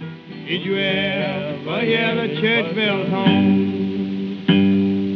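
An old folk-blues recording by African-American musicians, as close to Appalachian folk as to Mississippi blues: a wavering sung vocal over steady, ringing stringed-instrument notes, with a slightly distorted, lo-fi character and a fresh strummed chord near the end.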